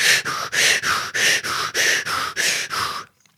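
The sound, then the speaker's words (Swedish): A person demonstrates hyperventilation, breathing in rapid, forceful bursts, about ten quick breaths in three seconds, loud. No talking during the breathing. “Men eh, många som har velat ta bilen med och ta risken att de kör på ehm, poliskontroll så, så har de praktiserat snabbandning, alltså hyperventilera.”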